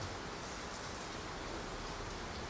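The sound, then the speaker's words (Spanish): Steady rain pours down in a continuous, even hiss with soft patter mixed in, filling the whole moment without a break. No voices are heard over it. “En medio de la lluvia, Señor, guárdanos y protégenos, te lo pido en el nombre de Jesús.”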